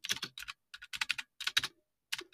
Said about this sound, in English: For those of you interested, mechanical keys other ones that sound like a typewriter or an old-fashioned word processor from yesteryear.